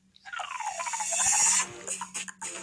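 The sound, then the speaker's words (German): A novelty alarm clock goes off with a loud, squealing electronic tone that dips and rises in pitch over a hiss, then breaks into a few short choppy bursts. No one speaks. “Das war der Wecker.”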